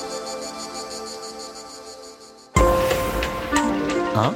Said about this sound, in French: Écoutez notamment les cigales.